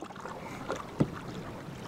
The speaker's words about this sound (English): He took me canoeing recently just below Vernon Dam